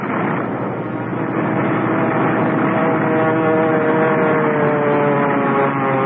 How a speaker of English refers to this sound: I remember the plane landing and then sheering sideways before I had time to cut the engines